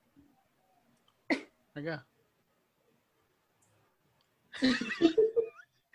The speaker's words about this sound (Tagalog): Inuubo, inuubo